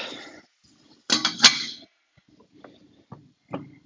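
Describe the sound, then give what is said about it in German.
A loud metallic clang of a lid set onto a cooking pot, ringing briefly, followed by a few softer clinks and knocks of metal against metal. “Ich könnte mir mal einen Deckel holen für diesen Topf.”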